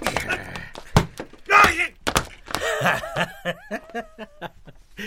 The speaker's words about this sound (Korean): 다음은 수철과 덩치 세명이 싸우는 소리다.